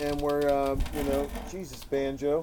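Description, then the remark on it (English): A chair squeaks and creaks in short, uneven bursts as a dog moves around on it, with a man talking over the noises. “That's my dog, party people. He's just moving around in a chair, just creating squeaks and squawks”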